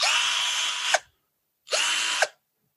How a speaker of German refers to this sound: hier ist der Akkuschrauber von Gernot Clement